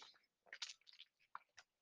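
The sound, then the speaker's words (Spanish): Someone takes quiet sips of a michelada beer drink: a few short, soft slurping and swallowing bursts with pauses between them, ending in a slightly louder gulp. “disculpen si de repente se escuchan como que de un traguito porque estoy aquí con mi michelada.”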